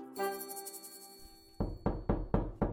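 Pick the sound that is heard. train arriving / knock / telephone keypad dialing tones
knock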